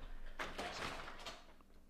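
A door swings shut with a short run of scraping, clunking knocks, then a quieter click or two as it is locked, leaving faint hiss.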